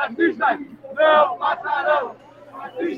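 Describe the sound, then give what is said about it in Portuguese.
A crowd of protesters shouts the slogan "racistas não passarão" (racists shall not pass) together in rhythmic bursts, loud voices rising and falling in chanted phrases with short pauses between them, marching past the Hospital das Clínicas in São Gonçalo, about 300 metres from the city hall. “A galera segue gritando: racistas, racistas não passarão.”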